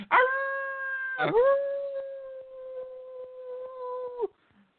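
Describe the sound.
A person imitates a dog's howl in two long sustained notes, trying to hold it out, the second held steady for about three seconds before cutting off abruptly, fairly loud.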